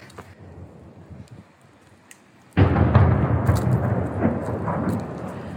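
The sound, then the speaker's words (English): After a few seconds of low, quiet background, a sudden heavy boom of an explosion from an ongoing attack breaks in and rolls on as a loud, sustained rumble to the end. No one speaks. “The attack is continuing.”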